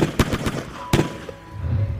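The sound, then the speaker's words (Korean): Gunfire in a shootout inside a building between police and a fleeing suspect: a quick burst of four sharp shots, a pause, then one more loud crack, followed by a low rumbling tail. “필사적으로 도망치다가 곧이어 건물 내에서 총격전까지 이어집니다.”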